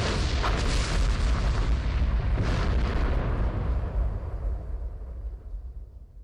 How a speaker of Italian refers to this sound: Sono già nelle sue mani quando sento il tremendo boato di un'esplosione, un fracasso infernale che non si può descrivere.